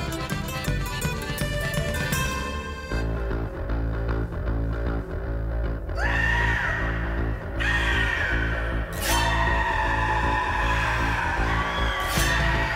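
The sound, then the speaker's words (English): A folk-punk song plays loud and continuous, a heavy driving bass line pounding underneath while piercing vocal shrieks burst out several times over the music. “Dude, I love this so because I was not expecting that no. bass line to come in, and then you get the shrieks, and it's great.”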